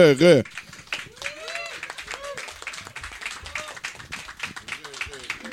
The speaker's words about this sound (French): Fait que là-dessus, euh, pour débuter la soirée, s'il vous plaît, mesdames et messieurs, une bonne main d'applaudissements.